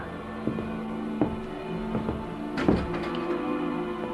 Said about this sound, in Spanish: Con pasos lentos, la ciega se dirigió hacia la puerta, abriéndola.